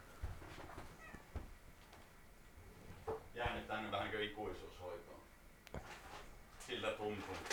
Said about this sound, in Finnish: Hiljennä tuo kissa. Hiljennetään Hiljennä kissa. keinolla millä hyvää? Hiljennät kissa.